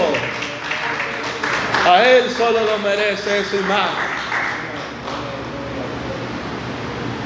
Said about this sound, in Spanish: Denle un aplauso.